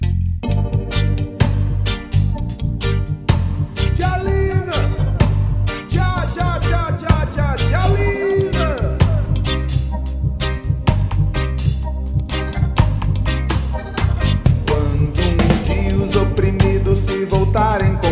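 A loud, full song plays throughout, with a steady driving beat, heavy bass and a singing voice weaving melodic lines over dense instrumentation.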